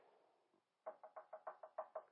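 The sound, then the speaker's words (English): A rapid, steady series of about nine firm, loud knocks by a roofer on the back door of a house, following a brief quiet stretch with faint background noise. “And about five minutes later, I heard”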